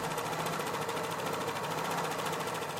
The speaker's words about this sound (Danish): Og nu har jeg fået syet min kjole færdig. I hvert fald alt det, der kræver en symaskine